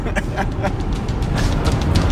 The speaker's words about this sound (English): Once again, if you hear my car driving, it's because I'm driving. We are driving. I'm holding the phone.